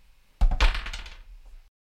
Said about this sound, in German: Dann hol mal wieder den Würfelbecher raus. Es ist Zeit, Dortmund gegen Wolfsburg zu tippen.